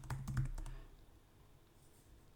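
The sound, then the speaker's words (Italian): A brief burst of typing on a computer keyboard, pressing Tab and confirming OK while saving a quick note with the NVDA screen reader: several quick keystrokes clatter in the first moment, then it falls quiet with only faint background hiss. “Qui premo tab, do ok.”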